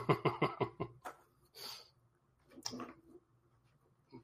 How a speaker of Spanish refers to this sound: Ya me pusieron a tomar agua, hombre.